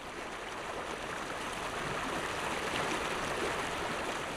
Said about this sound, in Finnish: Tapaan hänet Helsingin vanhan kaupungin kosken suulla – Kuljemme vähän alajuoksulle päin, missä kosken pauhu kuuluu hiljaisempana.